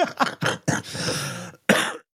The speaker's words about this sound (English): Sorry, little cough in there.